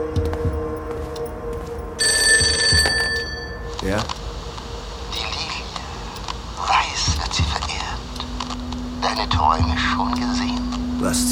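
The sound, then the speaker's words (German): A telephone on a nightstand rings once in a short, bright electronic burst, surrounded by low whispering voices, a steady hum and eerie, shifting ambient tones. “Sein Blick heftete sich sofort an das Telefon auf dem Nachttisch.”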